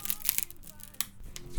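Papery crinkling and rustling as the sleeve of an original UK 1971 Apple pressing of an album is pulled open, with a few sharp crackles and soft scraping over about a second and a half, fairly quiet.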